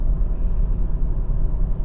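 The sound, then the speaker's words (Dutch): A steady, low rumbling drone of road and engine noise fills the cabin of a moving car on the way to Leeuwarden, constant and fairly loud with no voices. “Ik zit in de auto, ben onderweg naar Leeuwarden. Dus ehm, dat hoor je misschien wel.”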